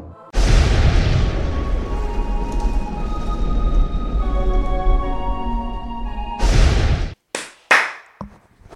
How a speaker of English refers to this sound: So the double clap signifies the start of an episode.